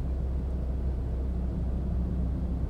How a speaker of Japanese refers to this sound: 今日車の中スタジオですよろしくお願いします